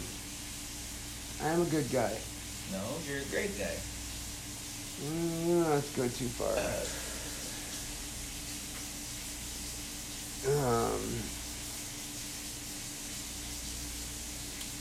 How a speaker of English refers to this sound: that steak sizzling in the background. If you hear that weird noise. That ain't weird. That's beautiful.